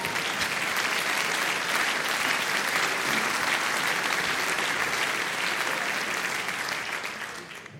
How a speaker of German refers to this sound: Ja, bitte, ich will das nicht unterbrechen, wenn ihr klatscht. Bitte.